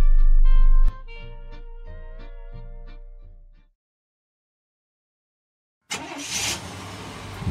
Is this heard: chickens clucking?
no